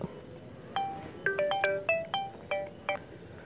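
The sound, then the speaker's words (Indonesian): A phone ringtone from an incoming call from a new number plays a quick melodic sequence of bright electronic tones, about eight short notes in an uneven tune, fairly clear over a faint background hum, with no one speaking. “eh bentar ada telepon asik sibuk banget nih kagak paling kurang gabut siapa nih nomor baru”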